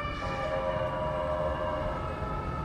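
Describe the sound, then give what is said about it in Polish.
An ambulance siren sounds from outside, a sustained, steady tone held throughout over a dense rumble of traffic noise, fairly loud, with no one speaking. “Karetka.”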